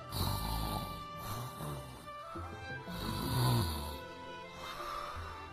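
A voice imitates a small spotted cat snoring as it dozes off by a warm stove: roughly three long, raspy, rumbling snores in a slow, even rhythm, moderately loud, with no talking around them.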